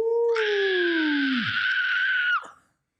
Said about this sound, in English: I can't scream loudly. I don't want to deafen our uh, sorry podcast. podcast listeners. Yeah, that's why I did a muffled scream.